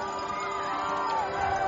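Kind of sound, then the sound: crowd, crowd applause and cheering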